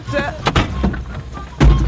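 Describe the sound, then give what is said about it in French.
A car engine, recently repaired after a breakdown, runs at idle with a low, steady rumble, broken by a few sharper mechanical bursts and a heavier thump near the end. “Yankee laissa ronronner le moteur un moment pour s'assurer que la panne avait bien été réparée.”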